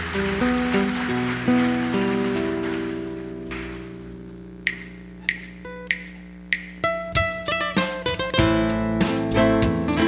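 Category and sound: crowd, loud applause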